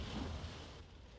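rain falling outdoors

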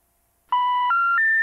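telephone tones

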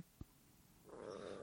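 stomach rumbling

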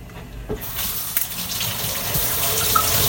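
tap water running

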